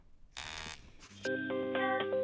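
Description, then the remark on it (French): A short burst of hissing noise, then a bright electronic mobile phone ringtone melody of a few steady, chiming tones, moderately loud and with no talking. “C'est ta pilule ou c'est ton portable qui s'enflamme dès que tu dis Laurent Wauquiez”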